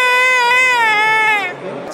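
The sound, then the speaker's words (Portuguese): A man lets out one loud, high-pitched scream, held steady with a slight waver for about a second and a half before breaking off abruptly into a quieter tail. “a gente vai botar aqui um grito dele no nosso podcast.”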